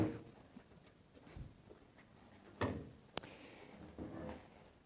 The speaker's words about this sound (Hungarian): Kirakom a három széket. Hm, legyen így.